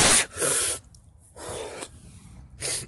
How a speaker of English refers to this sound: I've got to sneeze again.